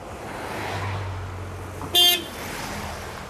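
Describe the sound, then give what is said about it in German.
A car pulls over at the roadside to pick up hitchhikers, its low engine rumble steady, with one short, sharp honk of the horn partway through. No one speaks. “Oh, hält er an?”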